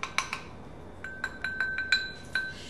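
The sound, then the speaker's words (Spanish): A spoon clinks against a container about eight times in an irregular rhythm as a spoonful of coconut oil is put into the container, each tap leaving a high, bright metallic ring that lingers between strikes. The tapping is fairly soft, with no talking. “Bien, entonces, a ver, Primero vamos a necesitar el recipiente y una cucharada del aceite de coco.”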